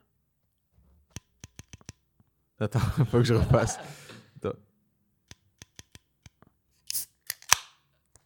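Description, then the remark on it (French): A few small metallic clicks and taps, a brief spoken remark with a laugh, then a sharp hissing pop as a Guinness beer can is cracked open near the end. “je pars sur la star du show, la Guinness.”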